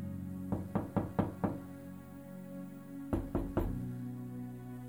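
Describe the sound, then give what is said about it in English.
A quick series of five firm knocks on a door, a short pause, then three more raps, clear with no voices. “He's knocking.”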